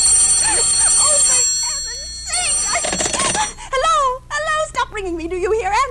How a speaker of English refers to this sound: Who's calling me? What are you doing it for now? Stop it, stop it, stop it, I say. If you don't stop ringing me, I'm going to call the police.